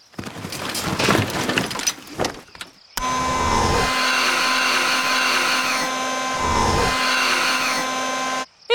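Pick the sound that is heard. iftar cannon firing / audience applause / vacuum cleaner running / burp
vacuum cleaner running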